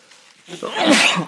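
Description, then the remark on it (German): A single loud sneeze follows a brief quiet moment: a short rising intake, then a sharp, breathy burst that fades quickly. No one talks. “Gesundheit.”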